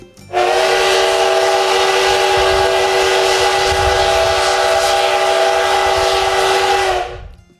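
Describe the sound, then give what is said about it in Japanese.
A loud, sustained steam locomotive (SL) whistle, recorded at Yokokawa Station, blows strongly as one long continuous blast of about seven seconds, a steady harmonic tone with rushing steam noise, cutting off at the end. “次はね今日あります一番長くこれね横川の駅のね住民の人にとってもびっくりしたと思うんですけど長い汽笛を取りましたのでそれでは汽笛の強いやつね”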